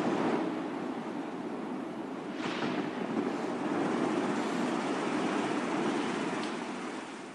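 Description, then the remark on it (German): A powerful ocean wave surges and crashes in icy cold water, a dense, roaring wash of surf that swells steadily and stays loud throughout, with wind noise mixed in and no voices. “Eine mächtige Welle zieht sie ins eiskalte Wasser.”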